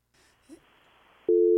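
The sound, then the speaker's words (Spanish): A telephone busy tone after a hang-up: faint line hiss with a brief murmur, then a loud, steady mid-pitched beep cuts in abruptly and holds to the end. “¡Ya colgó!”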